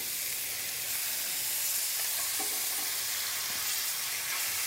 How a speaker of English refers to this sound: Gotta like that sound. Yes, it is. That's that sexy sear sound. Get it nice and hot. I want to get good color on both sides, so this way, pop it in the oven, let it cook.